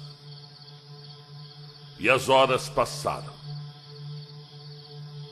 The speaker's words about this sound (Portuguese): O local era remoto e o dia já tinha findado. Somente os mosquitos e cigarras.